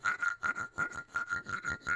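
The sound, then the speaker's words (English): A wooden percussion instrument, apparently a clave, is scraped in quick, steady strokes, about five a second. It makes a dry, buzzing rasp that chirps like crickets, fairly quiet, with no voices. “Um, I think this thing is a clave.”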